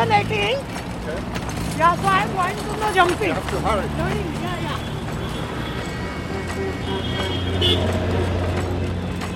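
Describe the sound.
Dense, continuous roar of busy, chaotic street traffic in a business district of Mumbai, with engines rumbling and voices and honking-like tones weaving through the crowded noise throughout.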